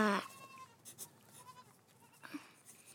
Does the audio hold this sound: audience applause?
no